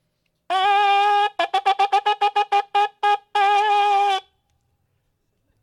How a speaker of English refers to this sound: Doesn't that sound good? Sounds like a dead calf. I don't know. It is a ram's horn.